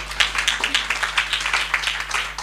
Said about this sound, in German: Gebt denen mal einen Applaus. Ja? Gebt denen auch mal einen Applaus